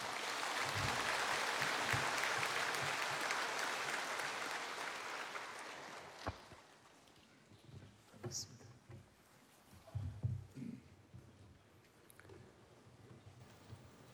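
A church audience claps steadily for about six seconds in a dense, sustained burst of applause, welcoming a church member coming forward to give a testimony, then it fades out, leaving scattered shuffling and a few soft knocks.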